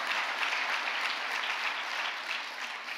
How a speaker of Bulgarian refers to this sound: О, ако вярваш в това и ръкопляскаш, ръкопляскай като че го правиш за Бог. Ръкопляскай като че ти си този човек.